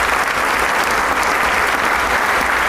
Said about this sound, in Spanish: regresa una vez más para recibir el caluroso aplauso del público. Este público lagunero que siempre se entrega ante los grandes intérpretes.